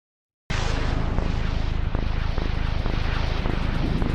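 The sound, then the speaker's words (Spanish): An Xbox 360 console startup sound begins abruptly and plays loud, a dense airy whoosh over a steady low hum, holding without pause for about four seconds with no voices. “Sí, este es el de la 360.”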